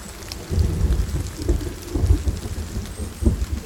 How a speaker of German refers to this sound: im Dorf hat es nicht geregnet, aber jetzt regnet es hier sehr viel.